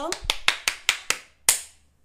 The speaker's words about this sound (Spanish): Qué alegría tenerte conmigo en este 2022. Un aplauso.